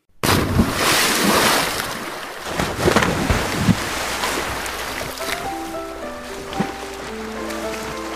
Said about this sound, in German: Arschbombe? Arschbombe. E Arschbombe! Arschbombe!